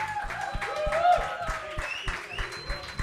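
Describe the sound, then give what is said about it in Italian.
An audience applauds steadily for a musician at the end of an evening performance, with cheers and whoops rising over the clapping and voices mixed in throughout. “fategli un grande applauso”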